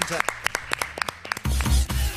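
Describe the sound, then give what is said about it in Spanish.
A short burst of spontaneous applause on the Urbana Play radio show as a guest's visit ends: a dozen or so sharp, uneven claps from a few hands for about a second and a half, then voices talking and laughing take over. “Aplauso espontáneo.”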